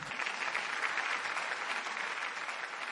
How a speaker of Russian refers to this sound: Аплодисменты. Сто лет Галичу.